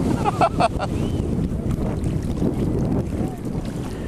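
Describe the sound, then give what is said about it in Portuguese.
Waves break against a breakwater where a person stands, breaking on their back in a steady roar of churning water, with wind buffeting the microphone and a brief surge of splashing near the start. “Então, não, vou um pouquinho mais para lá que eu estou no quebra-mar aqui. E a onda está quebrando nas minhas costas, isso não é bom.”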